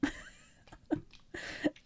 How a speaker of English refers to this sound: I don't know why I just like had to cough there.